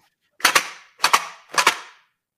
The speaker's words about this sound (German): Das ist nämlich die Original-Bonbondose aus den letzten Glühwürmchen. So klingt sie, wenn sie noch gefüllt ist.